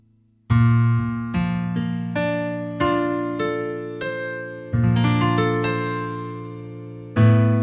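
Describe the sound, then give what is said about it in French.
Rich jazz chords, a B-flat major seventh ninth eleventh voicing, struck one after another on a keyboard, each ringing out and fading before the next, about ten in a loose rhythm, clear with no voices. “Et alors là, et alors là, le jazz arrive. Sometimes I wish si bémol septième majeur neuvième onzième.”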